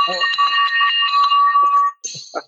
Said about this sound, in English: Where's that beautiful victory bell?